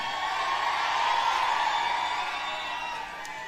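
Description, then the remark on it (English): A politician's crowd cheers and whoops continuously in response to him, a dense roar of many voices with scattered shouts rising above it, loud and sustained throughout. “or even if you're having a hard time making out, he's just getting a lot of public responses or, or positive responses from his uh, crowd.”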